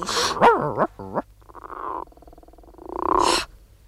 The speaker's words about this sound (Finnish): Mitä se sanoo? Toiko sammakko?